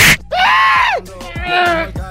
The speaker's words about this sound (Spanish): Oye, el diablito ya no grita igual, Choco. Yo pienso que ya está contagiado. Sus pulmones no están bien.